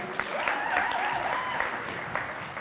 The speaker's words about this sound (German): Ein Applaus für